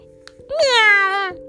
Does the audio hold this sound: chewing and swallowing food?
no